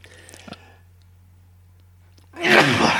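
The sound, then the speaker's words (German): A person with hay fever lets out a loud sneeze with a sharp explosive burst near the end, after a brief quiet intake and faint rustling. “wir können auch einfach mal irgendwie so eine Folge machen, wo du die ganze Zeit am Niesen bist.”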